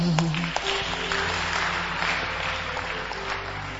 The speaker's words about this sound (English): Are you clapping for me or clapping for him?